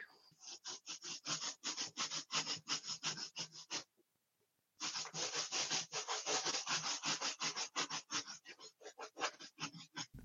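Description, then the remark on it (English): A blown-up balloon is rubbed briskly against a bare leg, trouser leg pulled up, in fast, steady strokes, about four per second, each a loud scratchy swish. A brief pause breaks the rhythm before the rubbing resumes. No one speaks. “Um, I pull up my trouser leg and rub it on my leg.”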